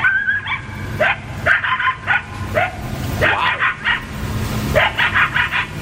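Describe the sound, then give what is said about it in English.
A pack of coyotes in a backyard very early in the morning yips and howls in a frantic, overlapping chorus of short high-pitched cries and rising wails, loud, continuing throughout with no one speaking. “The coyotes right in my backyard. Yeah, having a fit.”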